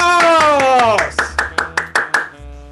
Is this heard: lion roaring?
no